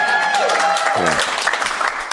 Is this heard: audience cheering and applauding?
yes